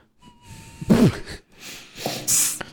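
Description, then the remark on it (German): A thin, faint whistle from a nose during breathing, followed by a few noisy sniffs and snorts of air through the nostrils, with no talking. “fuck, meine Nase pfeift.”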